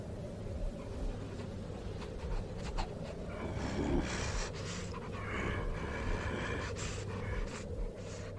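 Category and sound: animal, dog breathing heavily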